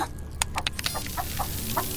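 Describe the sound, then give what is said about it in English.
A chicken clucks in a quick series of short, sharp notes, with a low background rumble and no talking. “Do we see the chicken”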